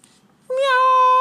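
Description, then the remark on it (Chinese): A single loud, drawn-out meow, most likely voiced by a person imitating a big fat cat while telling a children's story. The high, steady tone begins after a short quiet stretch and holds to the end. “喵！一只胡子蹦得直挺挺的大肥猫挥舞着爪子，站在三只小老鼠的面前。”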